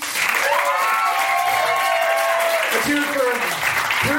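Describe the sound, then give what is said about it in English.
Sustained audience applause with cheering and whoops rising over it, a dense, steady wash of clapping from a crowd for several seconds, at the end of a live show as the performers are thanked. “Let's hear it for Evany Rosen also.”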